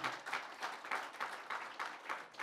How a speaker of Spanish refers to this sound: ¿Cuántos pueden dar un fuerte aplauso de alabanza al Señor? Aleluya.